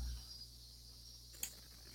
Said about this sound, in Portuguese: Eu já falei a mesma coisa, ele disse assim, olha, eu não tenho como consertar isso, porque são as cigarras.